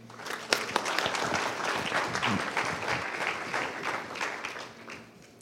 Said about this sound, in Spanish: Vamos a darle un aplauso a estos hombres.